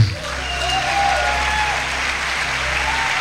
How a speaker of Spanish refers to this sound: Dale, dale un aplauso al Señor. Se escucha en toda Guatemala este aplauso para la gloria de Jehová, el Señor. Se escucha, se escucha.